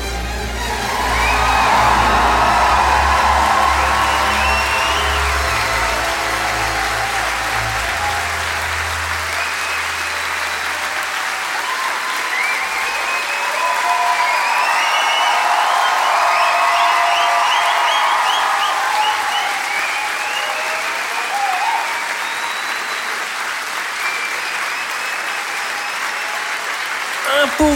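A large audience bursts into sustained, loud applause with scattered cheers and whoops, the clapping steady and dense for nearly half a minute, with some low rumble early on.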